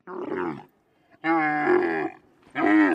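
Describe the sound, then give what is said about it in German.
An angry camel grumbling in three loud, throaty bellows, each a second or so long with short pauses between, harsh with a rumbling, groaning tone. “So klingt ein Kamel, wenn es sauer ist.”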